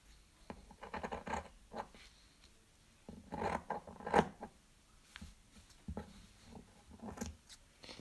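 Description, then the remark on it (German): Scissors snip through orange felt resting on a tabletop, a series of crisp cutting strokes with soft scraping between them and a louder burst of snipping midway. No one speaks. “Aber wenn ihr die Schere auf den Tisch legt, während ihr schneidet, dann hört sich das echt so an wie in diesen Filmen immer.”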